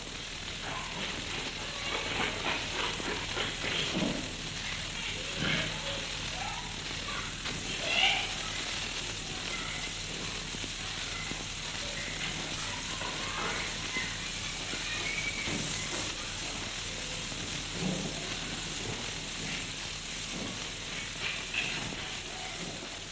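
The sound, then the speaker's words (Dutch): Near-silent surface of an old test record, used for testing sound equipment, with steady hiss and light crackle, while faint voices of children playing in the background barely rise above the noise. “We horen een proefopname, stilte, met op de achtergrond spelende kinderen.”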